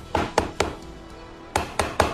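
Two sets of three sharp, hollow knocks on a wooden door, evenly spaced, separated by a short quiet pause; no one speaks.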